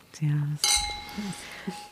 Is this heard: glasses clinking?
yes